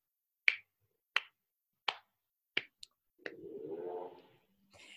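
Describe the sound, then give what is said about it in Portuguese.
Five slow, sharp claps heard through a telephone ring out one at a time with steady gaps, clear and loud, then a murky, muffled rumbling noise takes over near the end. “Eram claros, altos e vinham direto do telefone para mim. Aplausos.”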